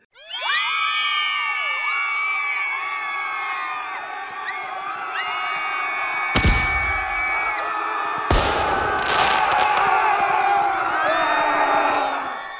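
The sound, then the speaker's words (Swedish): A crowd cheers and whoops continuously, full of high, rising and falling shouts, with a couple of sudden loud bursts around the middle and steady noise until it fades at the end, applauding to welcome the twin town Beitlov. “Så vi säger in med applåder.”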